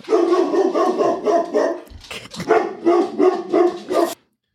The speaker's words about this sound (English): Yes, folks, that was an edit. We decided to leave the dog barking in there so you would believe that we have this dog who just continually interrupts us trying to get this podcast recorded. I hope it didn't scare any of y'all.